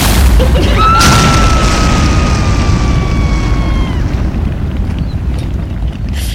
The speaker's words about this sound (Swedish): Nu, nu verkar det ändå som att den tar eld här, den här och den eh, Worcestersoppan verkar skapa någon slags eldboll.